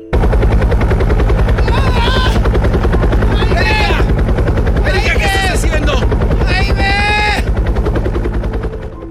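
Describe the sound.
A helicopter's rotor thumps in a rapid, steady chop, loud for the whole stretch, with voices talking over it now and then before it begins to fade.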